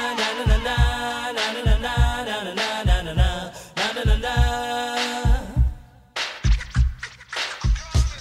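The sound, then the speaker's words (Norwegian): A 1990s reggae-pop song plays loud from an MP3 file, with a steady thumping bass-drum beat, bright layered instrumentation and vocal harmonies; the music briefly drops out before the beat kicks back in. “Det var blant annet den herre ….”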